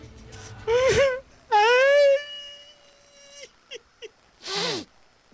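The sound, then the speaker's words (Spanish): A man loudly imitates wailing cries as part of a joke: a wavering howl, then a long drawn-out wail, two short catching sobs, and a final falling moan, all exaggerated with no other talk. “Ay, no sé si reírme del chiste de la. de la. del, llanto.”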